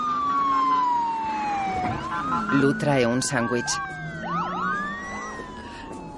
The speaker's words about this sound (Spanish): Pasan dos coches patrulla.